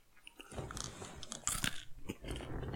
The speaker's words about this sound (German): Schmatzt.